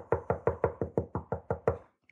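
Nine steady knocks on a wooden table as academic-style applause, evenly spaced, rapping out a brisk rhythm before stopping, with a faint small tap right after.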